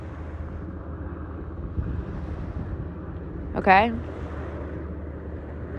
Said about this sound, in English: And the tide is coming in, and that's why the waves have gotten so much louder.